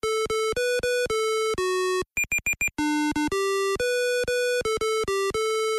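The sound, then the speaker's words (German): Bright, buzzy electronic beeps from the handheld LCD game Hase und Wolf play alone in a steady chain of short tones at shifting pitches, broken midway by a quick run of higher, clipped blips. “Das war Hase und Wolf, was wir da gerade gehört haben.”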